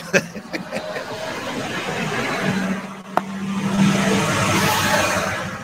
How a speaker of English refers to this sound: another tour bus that just went by the uh, the falls really really quickly.